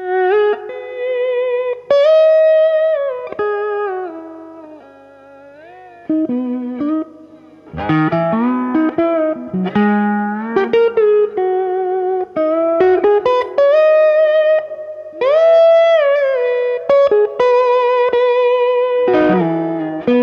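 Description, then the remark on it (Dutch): Bottleneck slide guitar, played with a small bottle about twice the usual diameter as the slide, plays loud, sustained notes that glide between pitches, each held tone swaying with a wide vibrato, over about twenty seconds with a few short breaks and no voices. “Vibrato ook wijd, vibrato eh, niet, niet klein”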